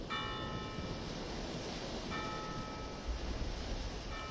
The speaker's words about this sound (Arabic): استخدم حواسك ركز سمعك ماذا تسمع صوت اجراس المدينه